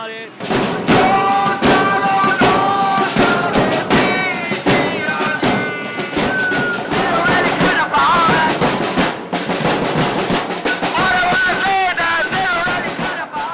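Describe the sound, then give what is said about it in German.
A loud protest crowd, demonstrating in the streets against a military dictatorship, chants and sings together in unison, with steady drumming pounding underneath. The mass of voices stays intense throughout, never letting up. “Das Trommeln, die Gesänge, die Wut, die Angst, All das war gerade zu hören und vielleicht haben Sie auch die Melodie erkannt am Ende”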